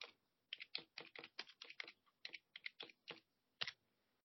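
Rapid clacking of keys on a computer keyboard, a quick irregular burst of keystrokes, pausing briefly before a final few taps, with no one talking.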